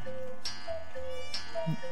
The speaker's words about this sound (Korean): 어, 지금 11시에요? 아닌데, 이 뻐꾸기 시계가 추위를 먹었나.